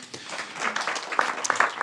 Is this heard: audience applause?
yes